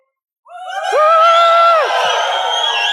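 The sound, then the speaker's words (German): A Swiss audience bursts into loud cheering as a warm-up, with a rising whoop and sustained shouts that swell quickly after a brief silence and hold strong to the end. “Und jetzt jubeln, jubeln, wir tönt jubeln als Schweizer.”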